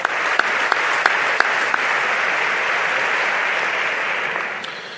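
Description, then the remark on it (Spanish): Sustained applause in Seville in remembrance of Pascual González, a dense wash of many hands clapping with a few sharper individual claps standing out early, steady throughout and easing slightly at the end. No one speaks. “El recuerdo ahora a Pascual González aplaude el propio”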